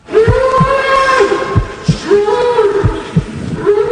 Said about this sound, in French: Derrière ces cris, un taureau qui se fait massacrer pour le plaisir de quelques personnes. Pendant 15 minutes, l'animal recevra des coups de plus en plus violents pour être ensuite abattu.